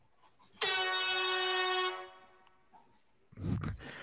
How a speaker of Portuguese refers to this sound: Vou pedir mais uma vez a corneta